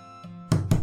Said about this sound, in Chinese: 有人在吗？诶，这时候有人敲门了。